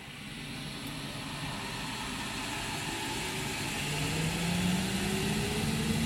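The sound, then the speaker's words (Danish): A gas-fired coffee roaster, fed from gas bottles, is switched on at the press of a button and powers up with a steady, loud roar, a motor hum climbing in pitch as it spins up, like a jet engine building toward takeoff. “Hold da op, det er som en helt flyvemaskine, der letter.”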